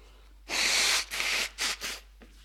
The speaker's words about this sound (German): Mann, was muss ich mir denn immer die Nase putzen?